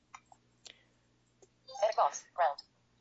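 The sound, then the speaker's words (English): A few soft key clicks as E and Enter are pressed on the edit button, then a bright, quick chime of three rising tonal notes from the Google Docs app, signalling edit mode, rings out clearly near the end against a quiet background. “And you heard it kind of make that chime noise. That tells me now that I'm editing.”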